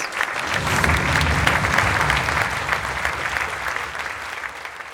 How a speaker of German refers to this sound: Als sich der Vorhang schließt, gibt es vom Publikum Standing Ovations.